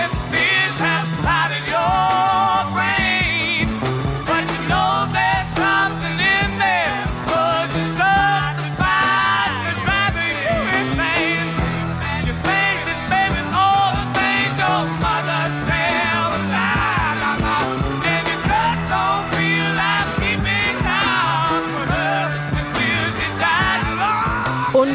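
A fast-tempo rock song plays loud and steady throughout, with busy driving drums, bass and layered melodic instruments, no spoken voices over it.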